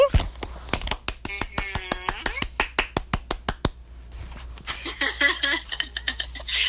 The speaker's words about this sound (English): Thank you for clapping. Yes, applaud, applaud.